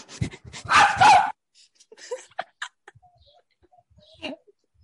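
A dog barks loudly into a small microphone held right up to it, one harsh burst against the mic followed by a few shorter yips and whimpers trailing off into quiet.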